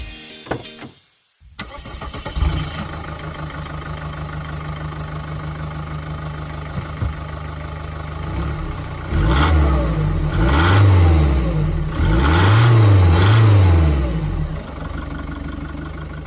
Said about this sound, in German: unverkennbar ein Diesel